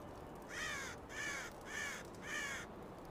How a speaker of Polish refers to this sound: A potem usłyszałeś latające kruki.